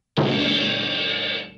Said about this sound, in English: All right, that's a submarine, and I just want to make sure everybody knows what that sound is.